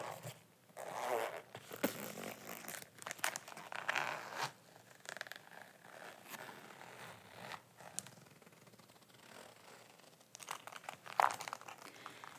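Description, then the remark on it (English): A bag is unzipped and handled, with quick zipper rasps, fabric rustling and crinkling, and a few sharp snaps and clicks scattered through; no one speaks. The bag has a front section that snaps closed. “But this could be somewhere you could put your phone in the front or something along those lines and then just snap it closed. And then we've got a big opening here.”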